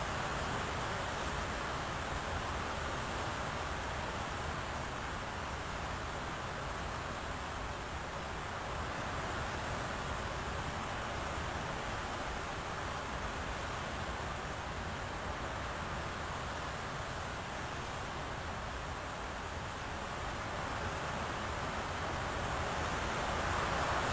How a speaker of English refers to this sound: people who are listening online, we're just doing a little bit of sound meditation here as the rain, rain is so loud we can't hear each other.